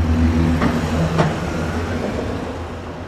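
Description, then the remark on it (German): A steady low rumble of road traffic passing along the street, with engine hum fading slightly and a couple of brief sharp clicks near the start; no one speaks. “Es herrscht etwas Verkehr auf der Straße.”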